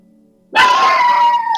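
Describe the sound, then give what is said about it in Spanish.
A small dog lets out one sustained, high-pitched bark-like yelp that starts suddenly and holds for about a second, loud, with no talking over it. “Eh, oye, el, perrito celebró también.”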